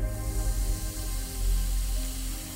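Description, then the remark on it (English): A steady, continuous fizzing hiss from a vinegar chemical reaction building pressure inside a bottle rocket set facing downwards on straws, moderately loud, with a low rumble underneath and no voices. “Can you hear that reaction going on? It sounds super fizzy and the pressure is starting to build in the bottle and we have liftoff.”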